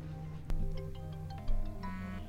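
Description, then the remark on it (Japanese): A phone rings with a melodic electronic ringtone, a short run of bright tones with a couple of soft knocks, heard fairly quietly with no one speaking. “さあ電話かかってきました”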